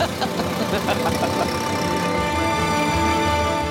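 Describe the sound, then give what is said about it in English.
An old car engine runs steadily, a continuous rumbling drone with a slightly knocking, uneven texture that holds at a constant level throughout. “You love that car, don't you? I do love that car.”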